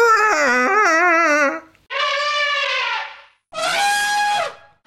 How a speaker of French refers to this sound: dit jingle, et c'est le jingle du colonel Hattie, c'est le jingle éléphant